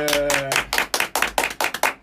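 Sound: hand clapping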